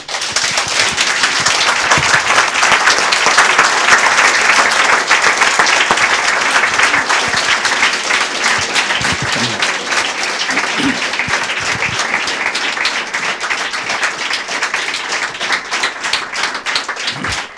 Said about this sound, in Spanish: ¿Debemos gritar? ¿Mover las manos? Aplausos fuertes al Señor.